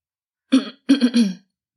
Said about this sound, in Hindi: उन्होंने अपना चश्मा उतारा और हाथ में इधर उधर करने लगे फिर उन्होंने गला साफ किया और कहा